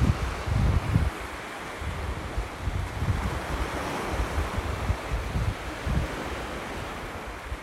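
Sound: ocean waves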